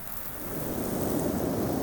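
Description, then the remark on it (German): A roaring windstorm sweeps from the south over a plain in a steady, dense rush of noise that swells slightly and stays loud throughout, with no voices. “Brüllend fegt ein Sturm von Süden über die Ebene.”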